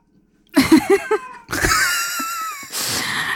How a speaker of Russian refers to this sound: У меня кот, ребята. Это мы уже не можем вырезать.